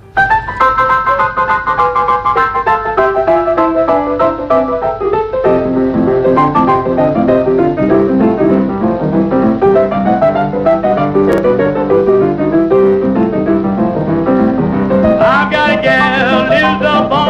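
A blues recording plays loudly and continuously, a rolling, busy instrumental passage with dense piano-like chords and a steady rhythm, no singing yet.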